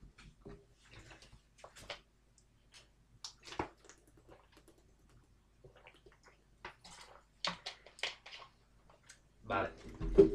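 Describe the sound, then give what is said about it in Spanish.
A person drinking water: scattered soft clicks, a few quick gulps and swallowing sounds separated by pauses, then a louder rustling burst and breath at the end. “Así que bebo agua y voy con ello.”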